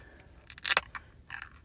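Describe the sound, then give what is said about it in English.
A can of Bud Light Next beer cracks open: a sharp metallic snap with a short fizzy hiss, then a second quick burst of hiss a moment later. No one speaks. “I'm about to pop open this Bud Light next. So, if you heard that, I'm going to put it up to the microphone.”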